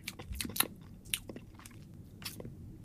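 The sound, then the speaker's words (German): Crisp crunching as granulated pure allulose sweetener crystals, like fine-grained sugar, are chewed in the mouth, a quick run of gritty bites with brief pauses between them, with no talking. “Ich nehme das mal in den Mund.”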